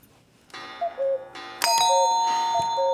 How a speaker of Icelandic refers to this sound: Þetta er klukka, þetta er klukka með fuggl, vekjara klukka. Mm, klukka, kl ég ætla að láta næja, klukka með fuggli, akkurat, gali, svona gali klukku. Þetta heyrist nú ekki að mörgum heimilum lengur.